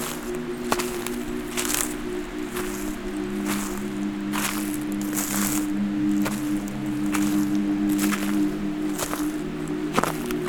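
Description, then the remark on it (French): Steady footsteps crunch over hard frozen ground in the mountains, each step a short gritty burst at an even walking pace, over a constant low droning hum. “sous mes pieds. Le sol est gelé.”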